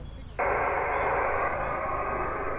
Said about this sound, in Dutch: Nou, we hebben even last van blauwe ruis.